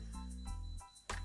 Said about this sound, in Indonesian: aduh suara apa itu ya? Suara listrik mau habis. Lebih serem dari sisa kubur.